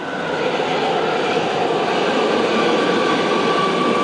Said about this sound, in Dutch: We staan hier dus nu op het station nog, onder de grond bij Centraal Station Amsterdam. En de metro die komt even langs voor ja, de testrit.